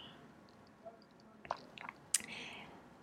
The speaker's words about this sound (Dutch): neem even een, kopje, een slokje thee.